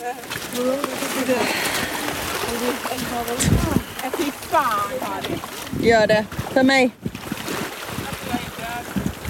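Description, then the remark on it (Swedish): People wade into cold water, with steady sloshing and splashing, wind rumbling against the microphone, and several voices talking and calling out over the noise. “Men sen skulle vi ner i vattnet.”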